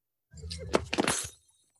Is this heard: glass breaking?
yes